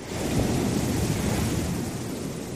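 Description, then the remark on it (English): A deep, continuous rumble of thunder rolls through a storm, loud and sustained with heavy low-end energy, blended with a wash of rain-like hiss and no voices. “Big storms like hurricanes and cyclones create it too.”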